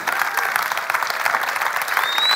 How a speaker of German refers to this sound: Und vielleicht können wir dem Team einen riesen, riesen Applaus geben.